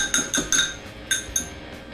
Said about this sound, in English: And then the egg. Give it a little mix before you add it. It'll help mix easier.